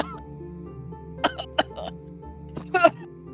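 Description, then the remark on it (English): A series of harsh, hacking coughs in uneven bursts after taking too long a drag from a pipe, with a final rough double cough near the end over a low background hum. “Yeah, you're hacking and coughing. You took you took way too long of a drag off of that.”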